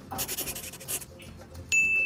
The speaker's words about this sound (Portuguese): Então só faz aquela assina, assina na tela aqui, ó. Finge, finge que você tá assinando aqui só para mostrar pra torcida do Inter qual que é a sua intenção.